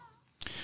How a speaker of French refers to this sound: Ah, si vous avez entendu, c'est Poupi qui a baillé. C'est un chat qui baille.